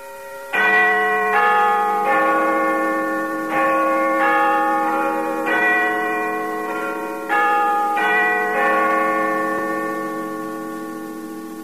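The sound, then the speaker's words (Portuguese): The BBC World Service interval signal from London: a clear, loud chime melody of about a dozen bell strikes in a steady pattern, each note ringing on and overlapping the next, with no talking. “BBC World Service. É a BBC de Londres.”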